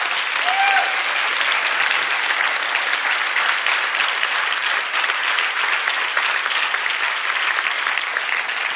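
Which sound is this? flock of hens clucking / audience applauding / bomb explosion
audience applauding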